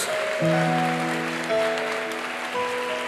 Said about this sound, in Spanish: Démosle un fuerte aplauso al Señor por ellos.